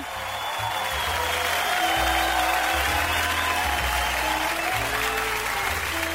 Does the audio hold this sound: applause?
yes